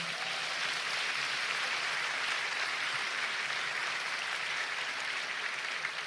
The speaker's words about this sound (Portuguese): Se é para aplaudir Jesus, vamos lá mais alto, né?